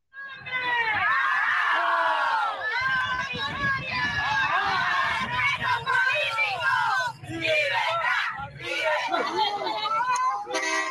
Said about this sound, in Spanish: Póngame el video donde se ven los cubanos cuando empiezan a protestar, cuando gritan y qué actitud tiene la dictadura.